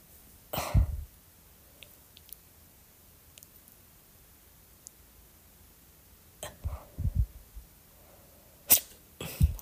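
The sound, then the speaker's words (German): A handful of sharp, abrupt hiccups arrive at irregular intervals: one early, then a long quiet pause before a quick cluster and two more near the end, clear, with no talking; they continue after the person gently pulls on their tongue to try to stop them. “Aber du siehst, hat jetzt auch nicht wirklich was geholfen.”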